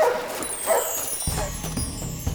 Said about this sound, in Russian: Ребята, так, вылезайте скорее, слышите, как лает? Там что-то случилось